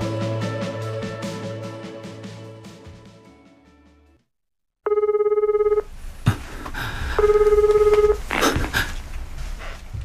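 Music fades to silence, then a telephone rings twice in short, loud electronic bursts, with faint background rustling between and after the rings.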